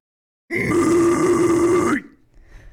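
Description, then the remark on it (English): A man, asked by a viewer to give a roar, lets out a single loud, sustained growling roar with his voice, lasting about a second and a half before cutting off, followed by faint low noise. “can you give us a roar?"”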